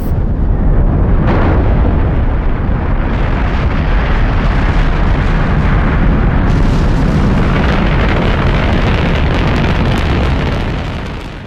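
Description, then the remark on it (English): A thunderous, continuous rocket liftoff roar, loud, with deep crackling rumble filling the whole clip before easing slightly at the very end. No voices are heard. “NASA's Kennedy Space Center has many ways to prevent the launch pad from igniting, including using millions of gallons of water that both prevent flames from spreading and muffle the powerful sound waves of liftoff.”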